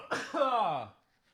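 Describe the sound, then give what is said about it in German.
A single loud sneeze: a sharp breathy burst followed by a voiced, falling 'choo' that fades out within a second, with no talking around it. “Da sind wir bei Enttäuschungen, wo ich niesen muss.”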